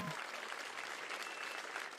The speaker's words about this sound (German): Durch den musikalischen Flashmob in Bad Kissingen führte Stardirigent Kent Nagano. Vier Musikstücke gab's, von Georges Bizet bis Giuseppe Verdi. Am Ende der verdiente Lohn, großer Applaus der begeisterten Zuhörenden.